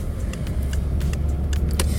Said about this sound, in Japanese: 今私は自分の愛車に乗ってますまあ私ねあのよく車に名前を付けるタイプなんですけどトマトンっていう 名前付けてあの乗ってますトマトンに